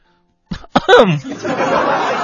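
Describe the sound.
A person demonstrates the 'cautious sneezer' type of sneeze, polite and elegant at moderate volume: two quick catches of breath, then a restrained voiced burst that trails off into a long, steady breathy hiss.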